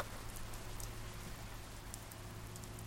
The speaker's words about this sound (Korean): 그때를 생각하면 기억나는 것이라곤 케이블카 안으로 들어오던 차가운 빗방울과 경사가 급했던 언덕, 소리치며 케이블카를 운행하던 운전수뿐이다.